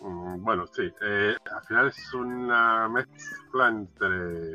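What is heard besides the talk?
cat meowing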